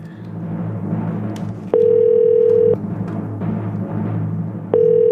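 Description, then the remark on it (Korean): An outgoing telephone ringback tone from a call to a listener on the radio show Mr. Radio rings twice, each steady one-second beep separated by a two-second pause, loud and clear over a continuous background music bed. “전화 갑니다. 걸어주세요.”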